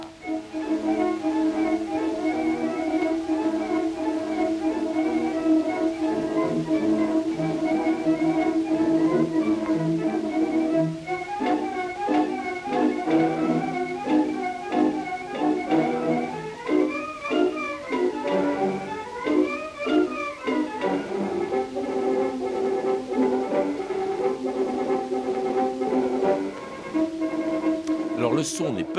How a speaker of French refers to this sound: peut-être pas très bon, mais c'est un enregistrement exceptionnel puisqu'il s'agit de l'orchestre des ballets russes qui jouait chez Razad à New York en 1916. Hein. C'est un enregistrement donc très ancien